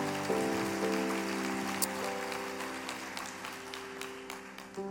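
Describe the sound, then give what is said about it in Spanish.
A church audience applauds for God in a dense, steady wash of clapping that rattles like rain for several seconds, while sustained keyboard chords hold underneath and then shift partway through. “Sí, denle un aplauso a, Dios.”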